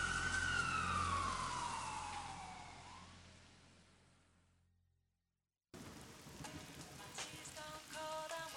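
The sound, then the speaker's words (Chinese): An ambulance siren passes in the rain at a crossroads with traffic lights, on a humid day with puddles on the ground. Its wail slides steadily lower in pitch over a loud wash of rain and wet road noise, then fades away before a brief silence and different background noise. “因为那天下雨了，就比较闷热，地上都有积水，我就在那等红绿灯，突然间就来了一个救护车嘛，他就直接就这么过去了”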